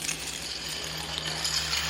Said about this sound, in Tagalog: Meron sa kanilang nagsasabi na hating gabi raw may naririnig sila sa hallway. May naglalakad daw tapos may hilahilang kadena.